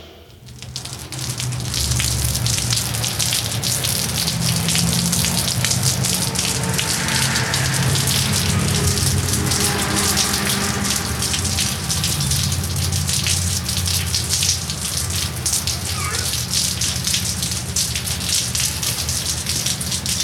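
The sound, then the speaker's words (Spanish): Steady rain falls all around, a dense, continuous hiss of drops spattering on surfaces with a low rumbling undertone, fairly loud and unbroken for the whole stretch, with no voices. “Imagina que paseas por la ciudad mientras la lluvia moja tus cabellos.”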